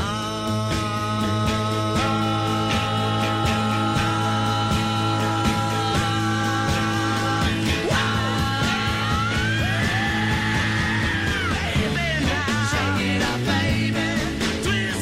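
Loud full-band 1960s rock music plays throughout while sustained vocal harmonies climb step by step, building tension toward a peak with wavering, rising voices near the end.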